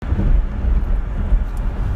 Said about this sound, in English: Well, you know what? I listened to it and it sounded okay. There's a little bit of traffic noise.